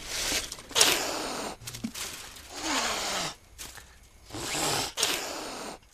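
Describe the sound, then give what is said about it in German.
A wildcat sitting up high in a breeding enclosure in the forest hisses and spits, several harsh, breathy bursts in quick succession with brief pauses between them and no talking. “Oben drin hockt die, die Kätze.”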